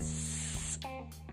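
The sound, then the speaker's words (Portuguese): A voice produces a steady, sustained hissing "sss" sound demonstrating the Portuguese S sound, even, lasting most of the moment before tapering off with a slight breathy shift at the end. “E sim, que ela tem o som de S, ou seja, que ela tenha esse som”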